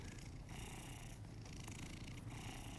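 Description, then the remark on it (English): A big male cat purrs steadily, a continuous low rumbling with a soft rhythmic pulse that carries on unbroken for a few seconds, with no voices around it. “Jenny brought her cats out here to live with me. And Marky is like a real life Garfield”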